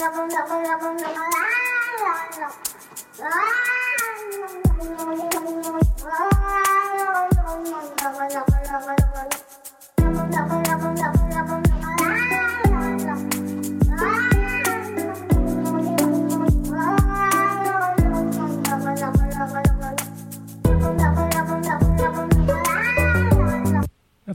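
A cat meows over and over in rising and falling pitches, loud, shaped into a tune over a steady beat, with a deep backing track joining partway through.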